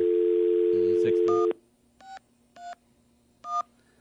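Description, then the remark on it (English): A steady dial tone gives way to three short, evenly spaced telephone keypad beeps, each a crisp two-tone DTMF press, fairly loud with faint background murmur. “Tell we got some numbers that sound sick on that thing.”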